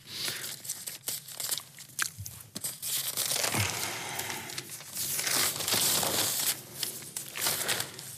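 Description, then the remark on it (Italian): Loud rustling and crinkling of newspaper pages being flipped and handled while searching for an article, with irregular bursts of crumpling and occasional sharp crackles, no voices heard. “adesso lo andiamo a ricercare”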